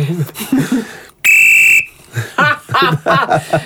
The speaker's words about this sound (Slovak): Skús mi offside odpískať.